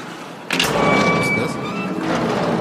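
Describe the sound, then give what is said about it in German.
A door abruptly swings open with a sudden thump as someone comes in, followed by a sustained rushing noise and a thin, high squeak as it moves, loud, with no one speaking. “Haben wir die Tür nicht abgeschlossen?”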